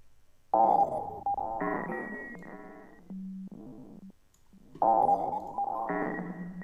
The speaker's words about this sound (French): Donc si c'est de la grosse trance hardcore, ne m'en voulez pas. j'espère que ce sera bien.